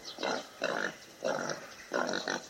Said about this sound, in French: Alors pendant que pendant que tu parles, il y a un sanglier qui est passé derrière nous, c'est pour ça qu'on entend ces bruits.